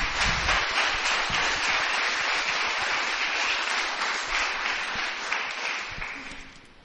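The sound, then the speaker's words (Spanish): A large group applauds for the Lord, a dense, sustained wash of clapping lasting several seconds before gradually thinning and fading out. No one speaks over it. “Un aplauso al Señor.”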